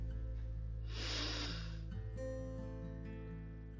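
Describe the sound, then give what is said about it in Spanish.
A single airy, hissing breath drawn in through the nose, lasting about a second, over a soft, steady musical drone that continues after it. “Ahora vas a inhalar por tu nariz nuevamente.”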